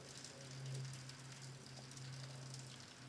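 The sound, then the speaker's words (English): Steady rainfall patters on the ground, a dense hiss of countless small droplets with a low, constant hum underneath. Fairly quiet and continuous, with no voices present. “And when they hit, they're shattered in all directions, and the sound follows along, moving to all sides.”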